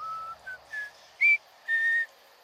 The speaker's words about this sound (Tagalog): Sumipol pa ako ulit para pasagutin sila at malaman ko kung nasaan sila banda.